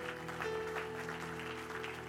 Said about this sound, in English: If you believe that, clap your hands one more time to the Lord.